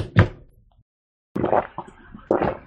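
A loud sip of a drink: a short knock-like thump, a second of silence, then a run of noisy slurping and gulping sounds with no talking.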